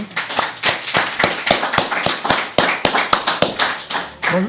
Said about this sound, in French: l'applaudir encore une fois, on n'applaudit jamais assez.